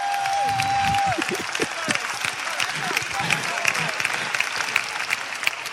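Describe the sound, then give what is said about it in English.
An audience claps in a steady patter of many hands, loud and continuous for the whole stretch, with a brief tonal whistle-like sound near the start and some crowd murmur underneath. “I don't know why you're not clapping for the fathers.”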